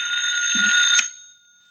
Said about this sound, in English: That ringing noise is back in my skull. You're a ham bone. That's the telephone.